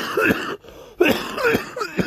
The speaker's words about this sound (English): and then sorry, that's not a weed cough. That's like a weird cough. Um, I wish it was more of a weed cough, but it, whatever.